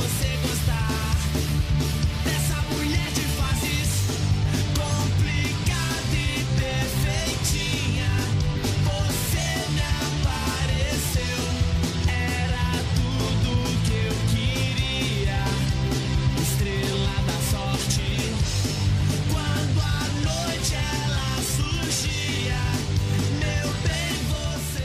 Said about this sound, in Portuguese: É, eu tô enrolando aqui porque a parte que a gente ouviu a torcida do Curitiba cantar é a mais perto do refrão, né?